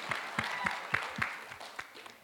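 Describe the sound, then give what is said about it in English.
Audience clapping for a speaker who has just remembered all her children's ages, in a brief, steady burst of sharp claps at an even pace, roughly three or four per second, thinning out and fading toward the end. No one speaks. “I have a almost 21 year old, 18, almost 16, 14, 7, I mean, let's just clap for remembering all of that.”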